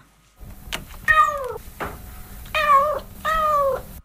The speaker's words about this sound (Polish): O, teraz nasłuchujemy, albowiem odezwie się kot. Kot pierwszy.